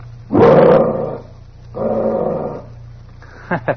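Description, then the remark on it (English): A dog named Bullet growls on command twice, a loud rumbling snarl followed by a slightly softer one after a short pause, over a low background hum, ending with a couple of quick clicks. “now, growl, Bullet.”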